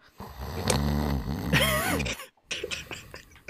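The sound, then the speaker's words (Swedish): A person imitates the loud snoring of someone sitting on a sofa: a long, buzzing, rattling breath with a whistling wobble near its end, then a short pause and a rougher snorting breath. “Jag hör att det är någon som sitter och snarkar.”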